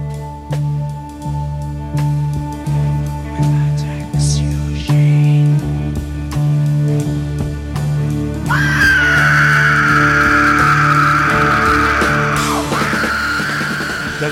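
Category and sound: scream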